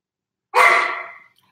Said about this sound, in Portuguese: Aqui tem cachorro, gente. Cachorros latem. Tá? Eles latem.